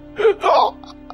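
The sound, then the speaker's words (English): A voice acts out the short, sharp gasp of a man having his throat slit with a dagger: two quick breathy intakes in close succession, fairly loud, followed by faint trailing breath sounds. “There is going to be a momentary gasp.”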